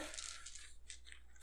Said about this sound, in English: There's a familiar sound of dice hitting the table. And we are rolling subterfuge plus manipulation.